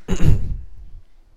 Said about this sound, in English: Sip of water for the working man.